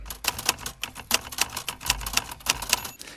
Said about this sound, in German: Das ist eine Schreibmaschine. Sehr gut. Das sehr gut. Damit hatte ich auch noch Kontakt, als ich klein war. Ja, ist nicht wirklich schwer gewesen. Also es war ein ganz altes Modell, das wir da gehört haben. Eine Olivetti Studio 44 hieß die